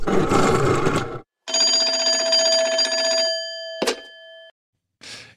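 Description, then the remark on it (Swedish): A short new telephone jingle on the Swedish radio show Fotbollsmorgon, introducing the next call: a burst of noisy clatter, then a bright bell-like ring with sustained tones, a sharp click, a fading tail, and a brief final burst. “Glömmer alltid lilla nya telefonbampen.”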